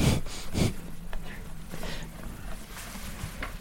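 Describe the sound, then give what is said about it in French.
Close, breathy snorts from a sheep blast into the microphone twice near the start, followed by softer rustling, chewing-like clicks from the animals' jaw movements and low rumbling handling noise. “C'est super chouette que tu réussisses à dire ça pile au moment où il y, en a un qui souffle sur le micro.”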